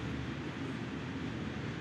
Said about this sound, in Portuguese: E está a passar a puta de um comboio gigante, estás a ver? Aqui.